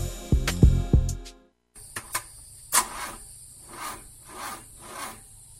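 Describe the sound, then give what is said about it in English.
A car engine cranks over and over with a rough, rhythmic grinding, each turn a rasping surge, but it never catches. It follows a brief burst of deep tonal thuds. “Hey, sounds like you got a bad alternator or starter.”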